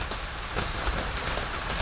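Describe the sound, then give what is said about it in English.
Heavy, icy, hail-like rain pelts down onto a parasol in a dense, steady hiss, hard drops crackling and ticking against it, continuous, with no voices. “This, this, is hailing. Really cool. Very it's hard good, huh? rain. Yes. Icy rain.”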